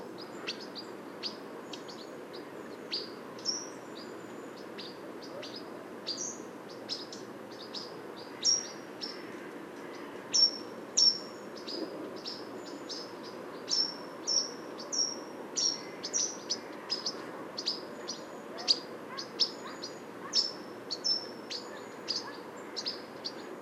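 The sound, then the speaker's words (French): Repeated short, sharp bird calls, a steady run of high "pit" notes from a pied flycatcher, ring out over a soft background of other songbirds, robins, with no voices present. “Il y a au fond des rouges-gorges, le Voilà, ces petits pit, pit, pit, pit. Ce sont des gommes-mouches noires qui doivent nous arriver euh, tout droit des forêts finlandaises.”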